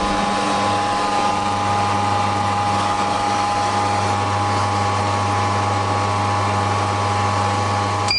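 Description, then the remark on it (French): An entry-level juice extractor's motor cooling down, giving off a steady, even mechanical hum with a low drone and a faint higher whine, unchanging throughout with no voices. “Là, tu entends, on entend le, moteur qui refroidit.”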